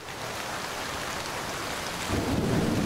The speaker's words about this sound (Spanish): Antes de terminar la charla, comienza a llover en la Ciudad de México.